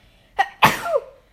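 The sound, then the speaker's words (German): A single sharp sneeze with a short inhaled build-up, then a loud burst that trails off, on its own with no talking. “so, Gesundheit.”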